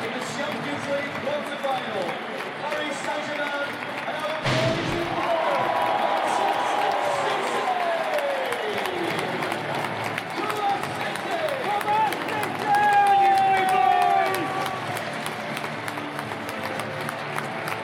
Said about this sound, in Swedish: Ja, det vi får höra är helt enkelt eh, inmarschen från City det här.